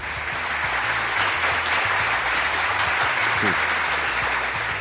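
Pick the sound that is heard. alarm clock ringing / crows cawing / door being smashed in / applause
applause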